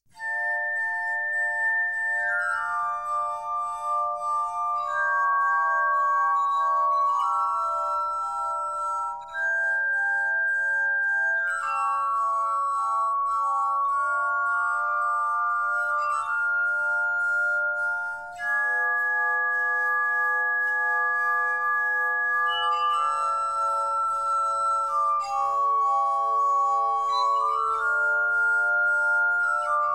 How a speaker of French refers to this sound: On va écouter ensemble les 50 premières secondes de cette suite. Vous allez voir, c'est très baroque, et vous allez entendre plusieurs moments dissonants.